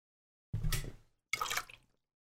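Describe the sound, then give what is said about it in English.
Two short, harsh sputtering bursts of a person choking and coughing on a sip of water, with a brief gap between them and no talking. “I was choked on my water.”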